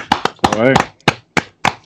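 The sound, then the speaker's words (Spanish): A handful of sharp hand claps at an uneven, unhurried pace, with a short burst of a voice calling out in the middle, as a Chilean lucha libre wrestler is introduced for an interview. “Un aplauso.”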